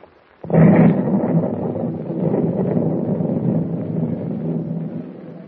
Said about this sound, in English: If those explosions are what I think they are, we'll be sinking any minute, and we won't be able to do a thing to save ourselves. Yeah, that was a bad one, lad. Rocked the whole ship.